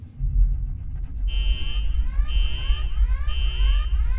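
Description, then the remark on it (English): In a cabin gone dark with emergency lights on, a heavy low rumble, then shrill emergency alarm klaxons blare in, sounding in repeated pulses about a second apart, loud and piercing over the continuing drone. “Emergency lights come on, klaxons ringing in my ears, and it startles me so bad I bust my head on a railing.”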